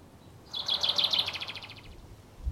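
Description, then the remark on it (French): A bird chirps in a quick, rapid trill of bright high notes lasting a couple of seconds, clear against a quiet outdoor background, then fades off. “Oh, regarde l'oiseau là-bas.”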